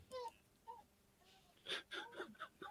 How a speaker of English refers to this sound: Can you hear that dog? Dog, is it your dog?